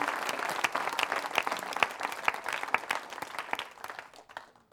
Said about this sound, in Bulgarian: Може ли някой да ръкопляска в моята църква?